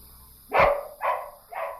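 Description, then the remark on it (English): A dog barks three times in quick succession, the first bark loudest and sharpest, the next two a little softer, with no voices around. “did the dogs eat? You know they are more important in this home than you. At least they protect me.”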